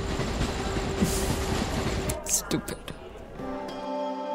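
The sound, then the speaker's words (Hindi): A train rumbles loudly, apparently crossing a bridge, with a steady rolling roar, a few sharp metallic clanks midway, and a sustained tonal hum toward the end. “वो किसी रेल से गुजरी और वो एक पुल सा थर आया”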